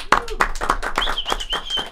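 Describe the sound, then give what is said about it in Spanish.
An audience applauds with sharp, steady claps about four per second, while a thin high-pitched whistle holds through the second half. “Yo como buen comunista aplaudo con la gente.”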